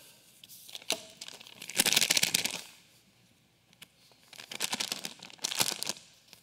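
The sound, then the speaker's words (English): Paper rustles and crinkles in two bursts of handling, separated by a brief pause, with a few small ticks and taps between them; no one speaks. “I got some stuff on this paper right here.”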